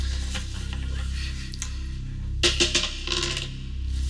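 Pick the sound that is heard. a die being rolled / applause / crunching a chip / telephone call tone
a die being rolled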